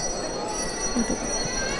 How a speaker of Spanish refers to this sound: se nos cuela esos sonidos de campanilla de los pequeñitos que van justo con la cruz de guía. Sí, en ese frente de, de procesión,